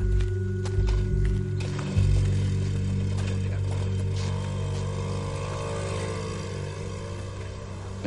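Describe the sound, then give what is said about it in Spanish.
A motorcycle engine drones steadily and fairly loudly as it approaches and then drives away, its pitch climbing slightly partway through as it revs, with no voices over the rumble. “Se acerca la moto de su compañero y se va.”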